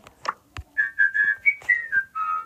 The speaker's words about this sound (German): Ich kann nicht pfeifen, deswegen fällt es raus.